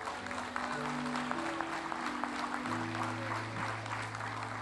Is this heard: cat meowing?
no